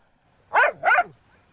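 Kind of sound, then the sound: animal, small dog barking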